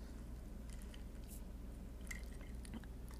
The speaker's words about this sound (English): I'm like hiccuping right now, so I'm gonna take a sip of my coffee.